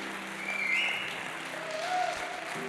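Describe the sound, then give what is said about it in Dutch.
A crowd applauds steadily for the technical crew, a dense wash of clapping that fills the space without pause, with faint cheering tones rising now and then above it. “En laten we nog een keer een echt ongelooflijk groot applaus geven voor al die technische mensen die dit allemaal mogelijk hebben gemaakt.”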